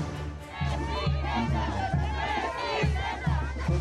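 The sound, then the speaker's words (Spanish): A crowd shouts and cheers continuously, many voices overlapping in a loud, rising din with rhythmic chant-like bursts and steady low thumping underneath: a fiesta with chinelos and shouts of "presidenta" at a polling station in San Andrés Totoltepec, Tlalpan, Mexico City, as Claudia Sheinbaum casts her vote. “En la número 3960 nadie votó hasta que llegó la jefa de gobierno Claudia Sheinbaum y entre chinelos, fiesta y gritos de presidenta, la mandataria emitió su voto.”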